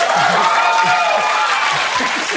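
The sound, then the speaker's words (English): Loud, steady audience applause fills the whole moment, a dense wash of many hands clapping, with a few voices and cheers faintly mixed in. “you guys wanted to clap, but everything I'm gonna say is gonna be amazing.”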